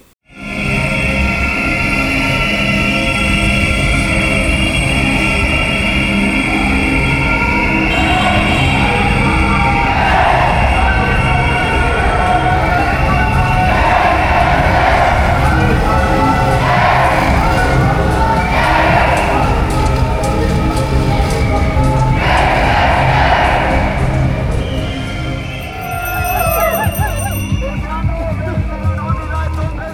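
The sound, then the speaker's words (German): A street demonstration on the move in Berlin on 16 December, marching from the Berliner Ostbahnhof through the city to the Humboldt-Universität: a loud, steady wash of crowd noise with many overlapping voices, rising into repeated bursts of shouting or chanting for higher pay, with sustained whistle-like tones above. “es hat halt eine Demonstration gegeben am 16. Dezember, die ging vom Berliner Ostbahnhof kreuz und quer durch die Stadt zur Humboldt-Universität.”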